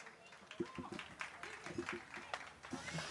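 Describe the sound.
An audience applauds a performer introduced to present a text, with a scattered patter of clapping hands, fairly quiet, while a voice talks over the clapping.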